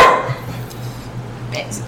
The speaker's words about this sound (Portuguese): tem um cachorro aqui chamado Ketchup que deu uma opiniãozinha aqui também